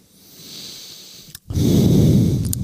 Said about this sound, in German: Ja, Schnauf. Ja, da muss ich echt einmal ein bisschen durch, durchschlafen und durchatmen.